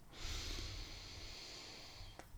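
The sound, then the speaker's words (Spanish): A single deep breath drawn in through the nose, a steady hissing inhale lasting about two seconds, with no talking. “Termino estas palabras respirando profundo.”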